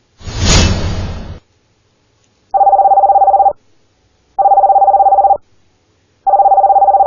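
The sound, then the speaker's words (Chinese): A brief rushing whoosh, then three steady mid-pitched telephone dialing tones, each about a second long with pauses between, as a call is placed to a pager service. No one speaks. “我忘了打电话了，你知道吗？”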